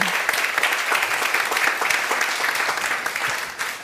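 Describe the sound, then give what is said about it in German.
Steady audience applause, a dense wash of many hands clapping at an even, sustained level for the whole stretch, with no voices rising above it. “Dafür, dass, dich, du keine, dass du keine Konkurrenzbeobachtung machst, hat das einen ja. Applaus verdient, ja, weil du auch.”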